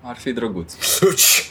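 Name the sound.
sneeze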